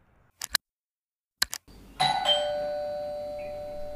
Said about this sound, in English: Oh, God. What's wrong? It's just the doorbell.